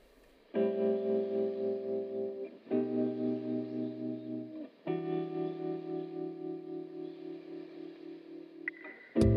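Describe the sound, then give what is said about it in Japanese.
A short electronic jingle for an audio program, sustained, processed synth chords playing alone in three held blocks, each with a wobbling chorus-like shimmer, ending abruptly with a brief click. “ジングル流すタイミング失敗しましたね。”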